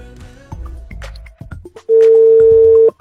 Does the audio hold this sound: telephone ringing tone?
yes